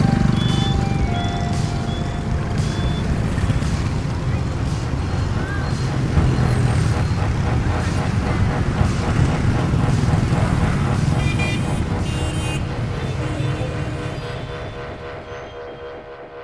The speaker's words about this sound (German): Als der Wagen durch das Haupttor hinausrollt, stehen die Wachmänner stramm und salutieren.